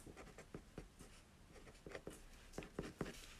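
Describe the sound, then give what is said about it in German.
Quiet scratching of a thick pen on paper, a run of short irregular strokes and scribbles as a word is crossed out and a new phrase written in its place, with no voices. “Da streiche ich durch das Timo und schreibe dahin, lieber nicht Dumbledore.”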